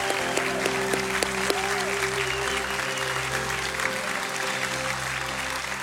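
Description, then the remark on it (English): A large church audience claps steadily and cheers in praise to the Lord, celebrating seven people who gave their hearts to Jesus Christ, with sustained applause and some voices calling out over a low, steady hum at a consistent loudness. “I want you to celebrate with me right now.”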